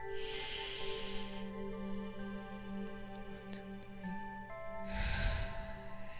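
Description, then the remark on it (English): A deep, breathy exhale during a guided breathing exercise, after an inhale held on a three count, rushes out at the start, followed later by a second heavy breath with a rougher, lower edge, both over a steady humming drone with no talking. “Big exhale.”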